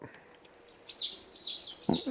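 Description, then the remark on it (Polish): Steady birdsong fills the background: a run of high, warbling chirps repeating in quick phrases, fairly prominent, with a brief low voiced sound cutting in near the end. “Moim zdaniem z ptakami jest przesada już trochę, no.”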